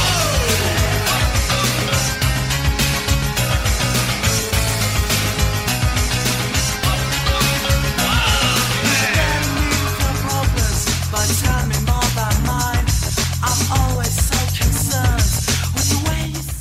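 An upbeat pop song plays loudly and steadily, with a driving beat, thick bass and bright layered instrumentation filling the whole stretch without pause.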